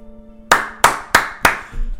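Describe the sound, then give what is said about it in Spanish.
Four crisp hand claps in a steady, even rhythm, each a sharp loud slap that quickly decays, with no talking over them. “Y a mí eso me parece de aplaudir.”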